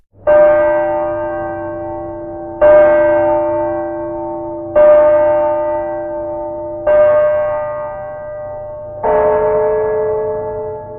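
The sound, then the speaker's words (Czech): A church tower bell tolls five slow, evenly spaced strokes, each loud and ringing with a deep hum that fades before the next. There is no talking. “Ve chvíli, kdy na věži udeřila první hodina po půlnoci, se ale hrobník pohnul.”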